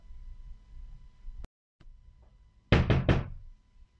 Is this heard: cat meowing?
no